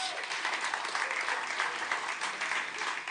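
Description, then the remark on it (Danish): A crowd claps steadily for a few seconds in applause for Jesus during a sermon, a dense, even patter of many hands with no pauses and no voices standing out. “Amen, ja, giv lige Jesus en klapsalm der, det er rigtigt.”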